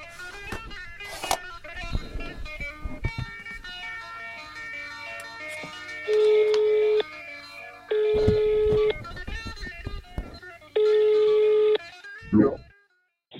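A phone line rings out with three long, steady ringback tones spaced a second or so apart, heard over a busy musical bed before a short burst of noise at the end, as an Aftonbladet journalist calls a person who held a senior position in Swedish counter-terrorism work.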